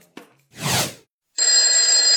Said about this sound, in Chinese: 起床啦！起床啦！起床啦！七点啦！ 蓝小瑞是被闹钟叫了三遍才醒的，他打着哈欠，把脚放到床边。